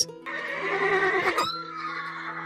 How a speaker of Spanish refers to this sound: Relincha un caballo.